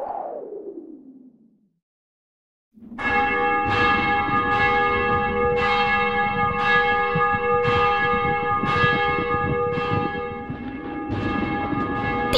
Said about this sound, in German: Vesperglocke läutet.